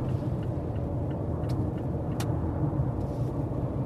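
A car's steady, dense road rumble fills the whole stretch at an even loudness, with a few faint clicks above it and no voices.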